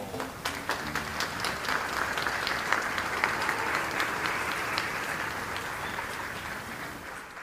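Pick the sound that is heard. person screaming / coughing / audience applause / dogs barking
audience applause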